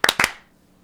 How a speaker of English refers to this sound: All right, clap sync. Three, two, one.